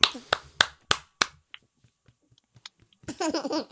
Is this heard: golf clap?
yes